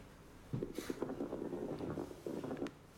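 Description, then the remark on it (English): Coarse lung crackles heard through a stethoscope: rough, bubbling pops riding on a muffled, rumbling breath sound, in two bursts with a short pause between them. Fairly loud, with no talking. “So ignoring the sneeze, that was the sound of some coarse crackles.”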